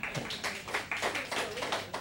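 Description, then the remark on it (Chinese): An audience claps steadily for about two seconds to encourage a participant, a dense wash of many overlapping hand claps at a fairly even loudness, with no voices over it. “来给这位朋友掌声鼓励一下”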